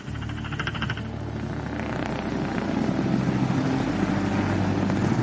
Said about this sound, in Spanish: Tal vez no podamos aterrizar debido al terreno. En ese caso tendrás que saltar. ¿Me van a acercar? Lo suficiente. Ahora saltaré de un helicóptero.